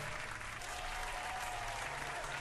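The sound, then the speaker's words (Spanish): Steady, dense applause from a group for a friend who has just connected with them, a continuous wash of many hands clapping at even loudness throughout, with no voices standing out. “vaya ese aplauso para nuestro hermano”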